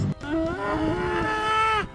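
A cow lets out one long, drawn-out moo, loud, holding a steady, strained bellow for almost two seconds before cutting off, with no voices around it.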